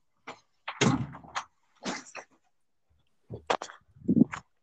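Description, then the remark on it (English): A door being opened and then shut, heard as a few clunks, rattles and a low thud spread over several seconds, with no talking. “you go out the door.”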